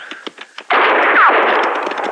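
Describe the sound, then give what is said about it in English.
A quick series of sharp gunshot cracks fired at riders on horseback, then a loud, sustained burst of noisy blast with a brief descending whine like a ricochet. No one speaks. “Hey, he's shooting at us.”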